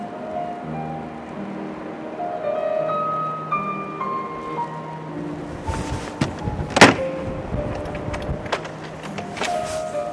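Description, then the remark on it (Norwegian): A door on Oksøy, Norway, is pulled shut with a sharp, solid thump by a man leaving, preceded by a few creaks and rattles, against a steady outdoor background with faint humming tones and no talking. “lukker døra bak seg etter 30 år på Oksøy.”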